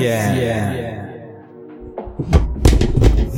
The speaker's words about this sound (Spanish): Perdón, se cayó el- las pilas.